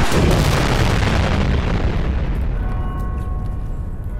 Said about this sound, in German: Einige Zeit später beginnt die Rettungskapsel ihren Sinkflug Richtung Erde. Ich denke, das wird kein sanfter Aufprall. Nein, wird es nicht. Festhalten! Die drei landen unsanft und mit einem lauten Donnern auf der Erde in der Nähe von Basel.